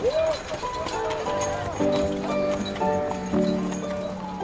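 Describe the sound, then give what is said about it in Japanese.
Horses' hooves clop and stamp in a steady, uneven patter nearby, with a short neigh near the start, while sustained brassy trumpet tones and a murmur of voices carry on behind them. “馬がいななき楽しげに大声で歌うグループを運ぶ荷車が大通りを走るのが聞こえる近くでは馬たちの足踏みやラッパの音がするベザックの音楽隊かしら”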